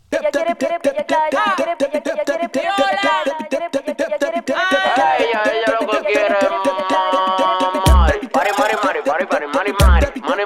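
A dembow track plays loud: a female vocal sings melodic lines over a tight, steady percussive beat, with a couple of sharp booming hits near the end.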